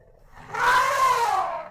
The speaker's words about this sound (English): Seeing how Aki is an elephant with no ability to speak any form of human language, it was not as easy as simply asking her what her side of the story was. So officials brought in a man fluent in elephant to translate Aki's honks for us.